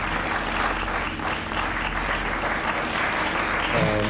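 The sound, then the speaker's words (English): A crowd claps steadily for about four seconds, a dense, sustained burst of applause from a large audience, fairly loud with no voices standing out; audience members applaud to show they have seen one of these things themselves. “People applaud if you've seen one.”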